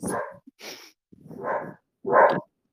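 A dog barks four times in short, uneven, loud bursts, with brief pauses between each bark and no talking.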